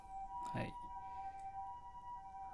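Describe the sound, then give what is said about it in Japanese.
An ambulance siren wails steadily outside the speaker's house, a sustained high tone that comes closer, with a brief burst of voice near the start. “救急車流れております。”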